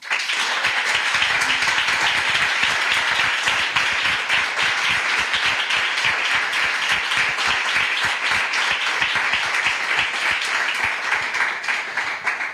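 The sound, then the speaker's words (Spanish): Sustained audience applause, the first of the afternoon, for guests Manuel Burque and Quique Peinado: a dense, even wash of many hands clapping at steady loudness for about twelve seconds, with no voices over it. “Para nosotros es un verdadero placer y por eso el primer aplauso de esta tarde es para ellos.”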